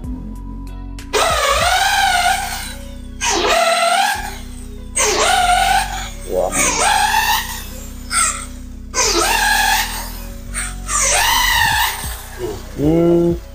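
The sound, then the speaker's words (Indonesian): A drilling machine in a curtain hole-punching room whines in about six loud bursts, its motor pitch sweeping up and down each time as it punches holes in sewn curtain fabric for the curtain rings, with short pauses between bursts. “Jadi dari habis dijahit ini kita bolongin dulu nih kita pakainya mesin bor ya hmm,”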